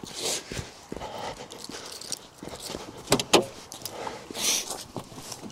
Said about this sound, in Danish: Men nu er jeg ved at være ude i min bil, sat mig ind i bilen.